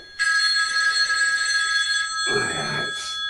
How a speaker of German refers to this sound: Geht der jetzt ran oder was? Ah, da läutet's Telefon.